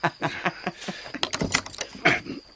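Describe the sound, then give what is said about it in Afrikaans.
Keys jingle and clink in a series of quick metallic rattles, followed by the clack and scrape of a lock as a front door is worked open. No voices. “Hoe is dit moontlik dat 'n man wat weet waar feitelik elke ster in die heelal is, nooit sy voordeur sleutel kan kry nie?”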